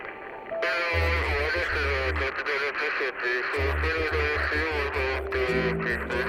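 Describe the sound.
The wireless radio in an army bunker in a valley crackles to life at night, breaking the silence, its loud, buzzy transmission full of garbled voice-like tones and static, with a deep humming drone throbbing underneath and briefly cutting out midway.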